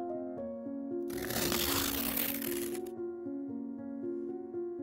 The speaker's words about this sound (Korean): 배고픔과 아들이 오기만을 기다리며 매일 울면서 벽지를 찢어드셨대. 산속 외딴 집, 엄마 혼자 사는 집 안에는 벽지가 찢어지는 소리만 났었지.